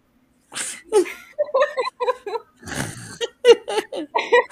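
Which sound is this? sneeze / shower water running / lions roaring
sneeze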